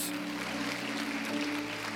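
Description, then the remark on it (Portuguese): A crowd claps steadily and densely throughout, applauding the Lord in the name of Jesus, a continuous crackling wash of many hands with no break, while a low sustained tone hums underneath. “em nome de Jesus, aplauda o Senhor.”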